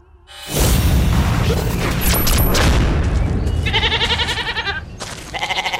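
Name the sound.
goats bleating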